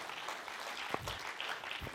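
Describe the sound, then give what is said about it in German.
An audience applauds for the Rodis in a steady, dense patter of many hands clapping at once, fairly soft and even throughout, with a couple of brief low thumps and no talking. “Man kann heute mal den Rodis einen herzlichen Applaus geben.”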